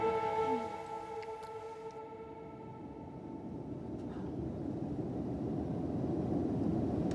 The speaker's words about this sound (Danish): Larry Page leans back in the wide leather seat of a private jet.